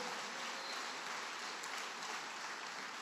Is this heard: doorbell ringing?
no